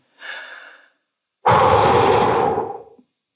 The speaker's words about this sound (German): dann atmet selbst tief ein.